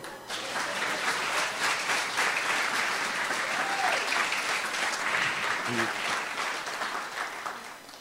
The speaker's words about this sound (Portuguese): Quem está comigo aplaude ao Senhor.